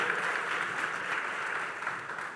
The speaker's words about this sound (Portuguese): Pode aplaudir a palavra do Senhor.